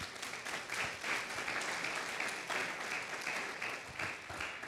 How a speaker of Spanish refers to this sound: Dele un aplauso a Dios entonces.